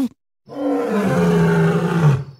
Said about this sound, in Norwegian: Kan vi få litt sånn løvebrøl av deg, GPS-dama?